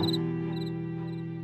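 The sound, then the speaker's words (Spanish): A cricket chirps in three short, evenly spaced trills, fairly faint, over a steady low droning hum that continues throughout. “Un grillo gotea oro por pasatiempo.”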